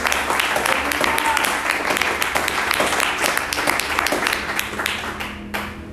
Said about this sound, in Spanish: Mire, si le va a aplaudir, apláudame fuerte.